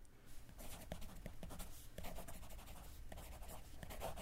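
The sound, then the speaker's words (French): A pen scratches steadily across paper in short, quick strokes, fairly quiet, with brief pauses between bursts of writing, as a jeweller writes a note describing a blue diamond. No one speaks. “Il la décrit dans une note.”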